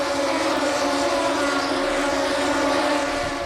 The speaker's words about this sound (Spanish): Fíjense, está en la llegada a meta, Así suenan las motos.